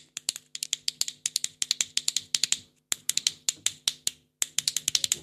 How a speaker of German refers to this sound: Die Kronkorkenkastagnetten.